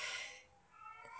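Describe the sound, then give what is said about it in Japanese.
A single clear meow from one of three pet cats kept at home, with a bright harmonic opening that fades and then rises again into a drawn-out second tone. No talking. “私の家でほんと3匹飼ってるんで、今も多分この猫の声入ってると思うんですけど”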